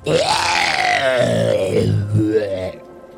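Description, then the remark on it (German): A voice imitates a disgusting, gurgling monster scream, a loud, sustained, rasping roar with wavering pitch and throaty bubbling, lasting nearly three seconds before cutting off. “Aus den dumpfen Schritten wird ein widerwärtiges, gurgliges Geschrei.”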